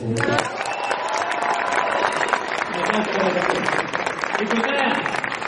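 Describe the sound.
An audience claps steadily for several seconds, a dense crackling wash of many hands, while voices talk and call out over the applause.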